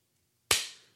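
A single sharp hand clap cuts through near-silence, a bright, crisp snap followed by a short ringing decay that fades over about half a second.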